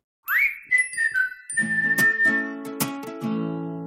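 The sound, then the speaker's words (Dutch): A short musical jingle: a rising whistled melody opens, then bright chiming notes ring over low sustained tones, played clearly on its own with no talking. “En, eh, maar ik vind wel dat we daar eerst een jingle tussen moeten doen.”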